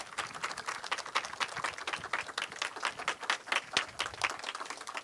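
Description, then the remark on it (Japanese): Steady applause from a crowd welcoming the moderator, film critic and writer Naoto Mori, and film director Yoshihiro Nakamura, fills the whole stretch: a dense patter of many hands clapping at once, fairly loud and continuous, with no voices rising above it. “本日モデレーターをお務めいただきます映画評論家ライターであられます森直人さんそして映画監督中村義弘監督です皆さん盛大な拍手でお迎えください”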